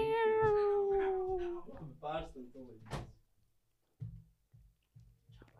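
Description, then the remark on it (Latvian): A cat at a door meows loudly in a long, drawn-out cry that falls in pitch, followed by a few shorter vocal bursts, then soft low thuds and shuffling while someone opens the door to let the cat in. “man jātaisa tās durvis. Mēs laižam kaķi iekšā.”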